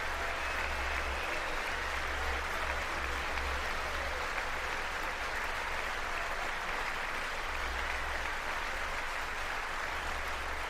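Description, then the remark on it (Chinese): Sustained standing applause from Republican members of the US Congress as Donald Trump calls for legislation banning late-term abortion, a dense, steady wash of clapping that holds at an even, strong level with no voices rising above it. “大家现在看到所站起来的鼓掌的，当川普说他要美国国会呢推动那个禁止晚期堕胎的这个法案的时候，站起来的全部都是共和党。”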